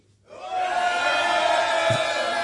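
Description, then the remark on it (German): A crowd erupts into loud, sustained shouting and cheering, rising quickly from quiet and holding at full volume, a dense roar of many voices calling out in approval, an audience shouting to signal that the pace of the questions was okay. “Also bitte jetzt laut geben, wenn ihr der Meinung seid, das Tempo der Fragen gerade eben war okay.”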